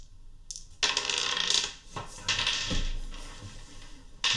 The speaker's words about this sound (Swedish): Så en tärning som trillar ner är lugnt. Ja, ja. Då slår om den.